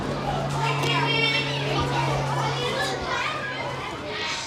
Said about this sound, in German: Normalerweise, wenn ich in die Schule komme, komme gehe ich mit meinen Freunden ein bisschen spielen, bis die Schule anfängt am 9 Uhr. Was machen wir da für Spiele? Wir spielen auf dem Spielplatz, wir rennen umeinander, mit dem plappern.